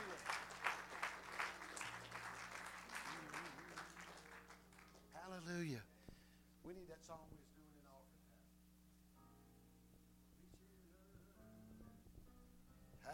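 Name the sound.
audience clapping hands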